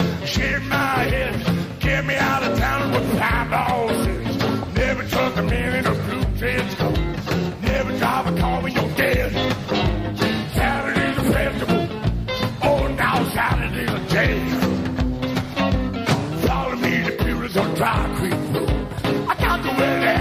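A loud, full-band rock song plays steadily throughout, with driving drums, guitars and a raspy lead vocal singing over the dense, continuous music.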